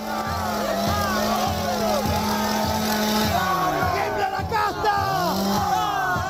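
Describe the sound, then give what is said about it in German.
A chainsaw engine drones with a steady, pulsing buzz as it is drawn and revved on stage at a political rally in Argentina, then fades under a loud, dense crowd of supporters cheering, whooping and shouting. “Der Dollarregen gehört zur Show, genauso wie die Motorsäge, die Millet nun zückt und rühren lässt.”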